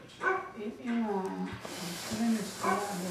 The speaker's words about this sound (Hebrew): מי בא עם כלב?